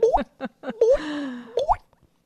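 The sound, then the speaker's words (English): A voice imitates a dripping faucet with a series of wet mouth plops and pops, a few quick drips separated by short gaps, ending in a sharp plop and silence. “And now a dripping faucet.”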